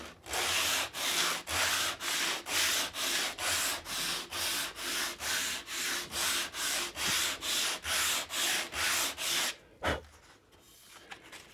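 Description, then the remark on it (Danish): Sandpaper rasps back and forth across a piece of wood in a steady rhythm, about twenty loud strokes, before stopping with a brief knock and quiet rustling. “Her er det en stykke træs. Mm-hmm. Øh, korn træs.”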